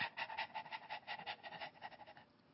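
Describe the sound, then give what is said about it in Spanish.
A person imitates a dog panting with quick, rhythmic breathy huffs, about a dozen short puffs in steady succession, fairly quiet, with no talking. “Se hacen los perritos, muchas veces nosotros los seres humanos jadeamos y no sabemos respirar.”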